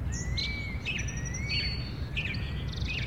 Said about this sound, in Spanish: sentía el suave pasto debajo de él, escuchaba el canto de los pájaros